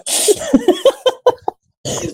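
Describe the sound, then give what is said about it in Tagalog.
A voice imitates a loud, crisp snort of sucking up mucus: a harsh noisy inhale, a run of short throaty grunts, then a brief pause and another sharp snort. “Malutong na yung higop mo. yung parang yung sipon mo tumama na sa ngalakala mo.”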